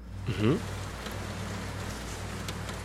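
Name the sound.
rain falling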